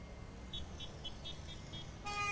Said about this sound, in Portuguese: Os motoristas passam aqui buzinando porque tem problemas em ambos os sentidos, no sentido Barra da Tijuca e também no sentido centro da cidade. Olha o tamanho do engarrafamento.